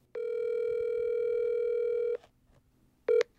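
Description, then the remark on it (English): A steady electronic telephone tone hums for about two seconds, falls silent, then starts again briefly, as a call to a free legal representation number goes unanswered. The tone is clear, with no voices. “They did get one piece of paper at immigration court with numbers to call for free legal representation, but no one ever picks up, so all they hear is this recorded message.”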